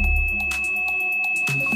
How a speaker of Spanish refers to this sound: Aquel año, con los cereales Capitán Crunch, de ahí el mote de Draper, regalaban un juguete parecido a un silbato. Se dio cuenta de que con unas pequeñas modificaciones podía hacer que el juguetito emitiese un tono a 2600 hercios.